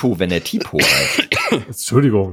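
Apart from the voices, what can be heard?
cough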